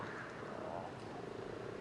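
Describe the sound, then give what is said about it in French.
A dense chorus of common toads and common frogs calling together at Beaumont pond on a calm, windless, moonlit March evening, a continuous low purring and croaking murmur that sounds steady, with no voices. “Ce soir, c'est la, grande fête des crapauds communs et des grenouilles rousses.”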